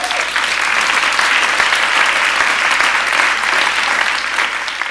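An audience applauds steadily for several seconds, a dense, even wash of many hands clapping with no talking over it.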